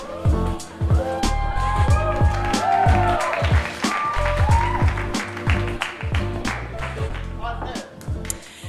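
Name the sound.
audience applause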